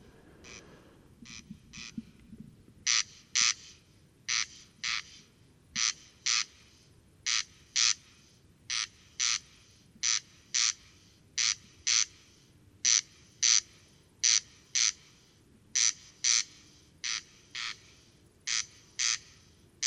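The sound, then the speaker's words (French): A corncrake (Crex crex) in the mountains gives its rasping crex-crex call over and over, dry doubled notes repeating in a steady, monotonous rhythm, fairly clear against a quiet outdoor background with no voices. “Observation sonore - Le Râle des genêts”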